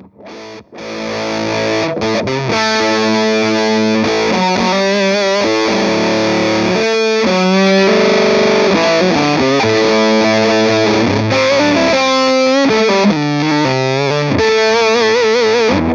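An electric guitar plays through a Marvel FX Rumble FX fuzz pedal with thick, buzzy, loud distortion, sustaining notes and chords that shift every second or two over a steady, saturated roar with no talking.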